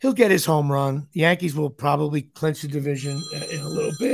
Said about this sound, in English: That's a phone ringing there.